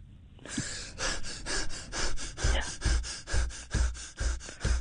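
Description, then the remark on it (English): A voice imitates someone running with rapid, heavy rhythmic panting, about a dozen sharp breathy huffs in steady succession, fairly loud, with no words spoken. “Also, what you got to do is like you got to do like sound effects, don't you? Like for like people running.”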